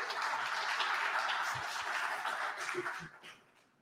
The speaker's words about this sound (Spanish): Démosle un cordial aplauso al maestro